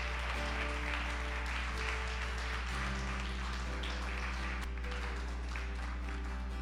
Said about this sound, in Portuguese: Dá uma salva de palmas a Deus aí, glória a Deus.